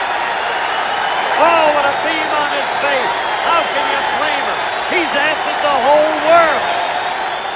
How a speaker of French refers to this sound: ce son que vous avez entendu, euh, c'était le troisième home run de Reggie Jackson dans le Game 6 euh, des World Series 1977 qui opposait les Yankees aux Dodgers.